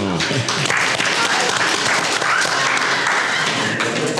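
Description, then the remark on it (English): An audience at a Baptist College event applauds a question about licensed educators, a dense wash of many hands clapping at once, loud and sustained for several seconds with a few scattered voices mixed in. “Clap please.”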